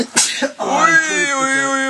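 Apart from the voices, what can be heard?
sneeze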